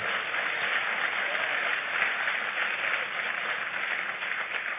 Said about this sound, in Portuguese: Aplauda ele bem forte, porque isso é tremendo.